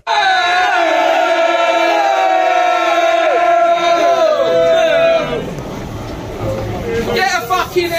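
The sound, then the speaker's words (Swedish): A large crowd of Millwall football supporters chants loudly in unison for about five seconds at the arriving Leeds team bus, then the chant breaks into rowdy shouting and jeering, with scattered individual yells near the end. “det här var ju jäkligt stökigt inför, för när Leeds-bussen anlände, då stod ju Millwall-supportrarna där och, och eh, men, eh, störde och, och skanderade en hel del otrevligheter mot, eh, mot Leeds-bussen.”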